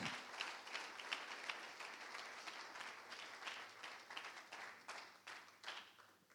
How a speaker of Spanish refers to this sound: Dele un aplauso fuerte al Señor mientras toma su lugar.